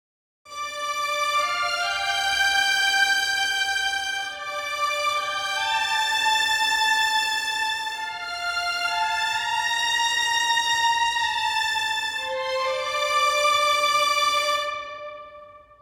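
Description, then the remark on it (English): Bowed strings play a sustained melody in parallel octaves, first and second violins one octave apart, two lines moving together with smooth legato phrasing, steady and fairly loud throughout with no voices. “Just the violins they sound like this.”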